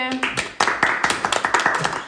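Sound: short applause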